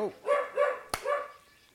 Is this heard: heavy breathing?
no